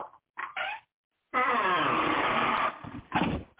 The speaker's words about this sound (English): Broadcasting live from the old wooden shack. The creak of the door.